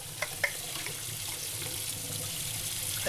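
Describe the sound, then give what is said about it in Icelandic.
Tap water runs steadily into a kitchen sink while dishes are being washed, an even hiss with a few brief clinks of dishes near the start and at the end; no one speaks. “Þetta er svona eins og í, í, í vaski.”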